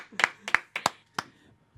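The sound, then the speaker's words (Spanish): A short burst of hand claps from a few people, about five sharp, slightly uneven slaps in the Típico Head studios, applauding the arrival of a musician, leader of a band, before fading out. “Ay, ay, ay, un, aplauso a …, líder de la agrupación ….”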